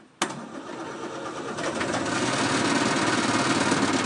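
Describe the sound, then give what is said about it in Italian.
A two-cylinder diesel van engine, started after waiting for the glow plugs to warm, cranks and fires up with a sudden loud catch, then settles into a steady, rough, clattering idle. No one speaks. “Frizione, si attende che le candelette siano calde e adesso vediamo se va in moto.”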